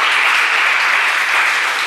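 An audience applauds loudly and steadily, a dense, even wash of clapping hands that fills the whole moment without letting up, with no speech over it.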